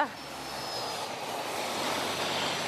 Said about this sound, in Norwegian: Der kommer det en bil. Der kommer det en bil. Ja. Det kommer en ca. en gang i minuttet.